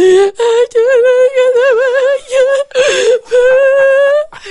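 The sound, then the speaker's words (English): A voice imitates the speaker's mother sobbing over the phone: loud, high-pitched wavering wails in several drawn-out bursts separated by brief catches of breath. “And she's like, I just, I can't take it. I don't know what, the, I can't stop crying.”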